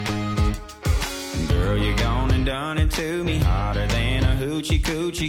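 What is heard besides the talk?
country music song playing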